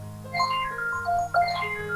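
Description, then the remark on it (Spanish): A short electronic timer alarm melody marks that one minute has passed after a countdown, a sequence of bright tonal beeps shifting in pitch, with a low steady hum underneath and no talking. “Y esa es la alarma de que ha pasado un minuto.”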